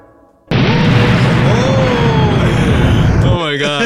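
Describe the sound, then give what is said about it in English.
A sudden, loud bomb blast erupts into a continuous roaring rumble as a chain of explosions reaches a reactor core, overwhelming, with whining tones sweeping through the noise before it drops off abruptly near the end. “Avalanche escapes into a nearby access tunnel, and a chain of explosions reaches the reactor core.”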